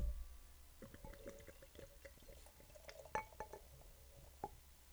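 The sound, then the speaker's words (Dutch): Amber beer pours into a glass, a steady fizzing trickle broken by a few light glassy clinks and bright taps, with no talking over it. “zo eerst even inschenken anders?”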